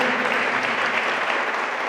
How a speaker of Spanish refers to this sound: Si lo creen, hermanos, si lo creen, dan un aplauso fuerte al Señor.